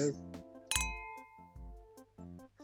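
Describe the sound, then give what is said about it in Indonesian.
A sharp glass clink rings out once, bright, its tone lingering briefly while voices chatter around it, as people toast with evening coffee. “Kopi malam well, nggak terlalu angkat gelas cuma ya sudahlah mari kita cheers dulu deh.”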